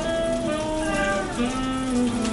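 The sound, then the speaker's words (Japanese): Premium Malts beer splashes heavily into a glass, poured fast so it is almost all foam, a continuous glugging pour with a faint ringing tone that shifts as the glass fills, lasting a couple of seconds with no talking. “まずビールを注ぐ時ほほぼ泡だらけになるようにドボドボドボドッと馬の尻尾のようにドボドボドボッとつぎます”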